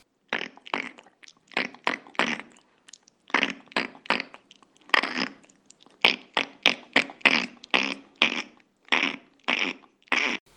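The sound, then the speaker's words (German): A long run of lateral tongue clicks, fairly loud, about two dozen sharp wet pops in a quick, uneven rhythm with brief pauses, and no talking. “… sagt dazu, es ist ein seitliches Zungenschnalzen”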